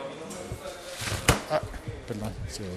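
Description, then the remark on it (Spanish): A wet umbrella is closed and shaken at the door of the workplace on a cold day. It pops open again before being shaken. One sharp snapping clack stands out among a few softer flaps and rustles, with a voice murmuring underneath. “Hora de cerrar el paraguas”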